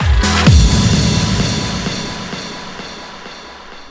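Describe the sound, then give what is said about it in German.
Steady vinyl record surface crackle with scattered small clicks and pops, a low thump near the start, and faint soulful house music underneath, fairly loud and continuous throughout. “Leute, ihr hört schon, ein bisschen Knister, ein bisschen Knacken hier. Vinyl ist angesagt, meine Lieben.”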